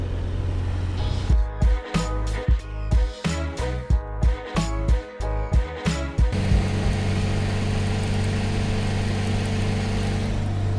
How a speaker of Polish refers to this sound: Dla koneserów dźwięków e, pojazdów z rodem z fabryki samochodów ciężarowych RSC Żuk właśnie został zmodyfikowany na trasie.